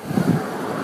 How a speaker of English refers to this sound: It's like a bunch of cars. This is everybody getting into work. They're all probably late. or barely on time.